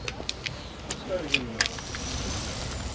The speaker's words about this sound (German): Da kommt der Bus.